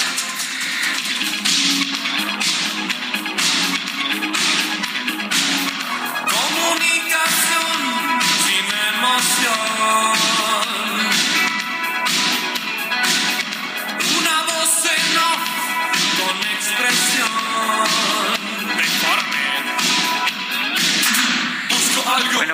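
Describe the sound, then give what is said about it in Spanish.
A song by an Argentine rock band plays loudly and continuously, with steady punchy drum hits and layered guitars and vocals-like melody filling the mix, no talking over it. “pues falleció el 4 de septiembre de 2014 este hombre que estamos escuchando”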